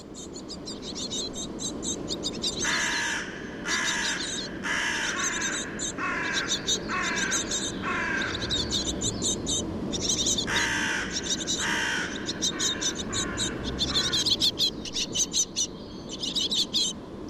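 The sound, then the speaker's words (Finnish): Crows caw repeatedly in harsh, rasping bursts, a series of loud alarm calls repeated in uneven rhythm over a steady background hum, with other birds faintly chirping; recorded in the city of Helsinki early in the morning in early June. “siinä oli variksi, jotka varotti”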